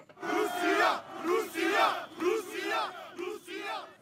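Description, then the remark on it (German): A large protest crowd at a demonstration in Belgrade, Serbia, in early March, about two weeks after Russia's invasion of Ukraine, chants in unison. Rhythmic shouted phrases rise and fall in repeated waves, loud and dense with many voices blending together. “Das sind Aufnahmen, die ihr da hört von der Demo in Belgrad, also in Serbien, Anfang März, etwa zwei Wochen nach Russlands Einmarsch in der Ukraine.”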